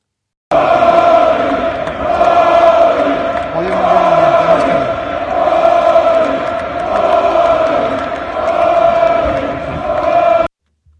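A large crowd of golf fans cheers and chants in a loud, sustained roar, with rising and falling waves of voices lasting about ten seconds before cutting off abruptly.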